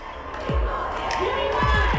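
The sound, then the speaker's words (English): A loud, agitated crowd shouts and yells over one another in the Chicago City Council chambers, a dense wall of angry voices with sharp individual outbursts rising above the din. “Those that are shouting in this chamber, please remove them.”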